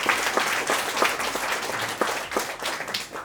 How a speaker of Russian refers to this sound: Поэтому прошу аплодисменты для партнеров